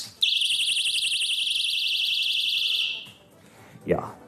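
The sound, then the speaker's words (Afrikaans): A personal safety alarm, set off by pulling out its pin and rated at 140 decibels, shrieks with a piercing, rapidly warbling high-pitched tone for about three seconds, then cuts off, followed by a brief murmur. “En ehm um, die hele idee is dat jy wanneer jy in gevaar is, trek jy hierdie pin uit en hy maak geweldige ras op 140 disciples op 140 desibels.”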